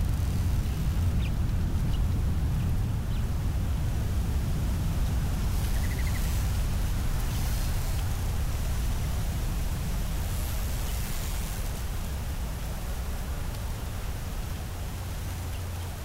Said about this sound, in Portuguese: O vento sopra gentilmente, passando por nós.